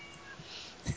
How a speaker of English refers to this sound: The cat, my, my cat says that that's okay.